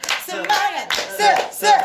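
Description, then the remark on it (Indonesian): A rhythmic cowboy-style clapping chant, the cowboy version of the 'tepuk semangat' spirit clap: about five sharp, evenly spaced claps punctuate loud, sing-song voices chanting together between the beats. “tepuk semangat versi koboi se semangat se se semangat iya”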